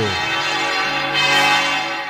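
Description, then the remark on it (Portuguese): Large church bells of the basilica in Aparecida, Brazil, called the largest basilica in the world, ring loudly with a dense, sustained metallic clang, overlapping tones swelling midway and lingering in a long resonant wash. “Vamos ouvir os sinos da maior basílica do mundo.”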